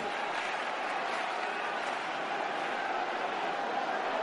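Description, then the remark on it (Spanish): The faithful filling the hermitage clap steadily and densely as the Virgen del Rocío begins to move, about two minutes after the salto de la reja: a continuous wash of many hands with no break, mixed with a murmur of voices, holding the same loud level throughout. “se empieza a mover la Virgen del Rocío, aproximadamente dos minutos después del salto de la reja, propiciando esto que escuchan nuevamente, las palmas de quienes llenan la ermita, los fieles que regresan para rezarle.”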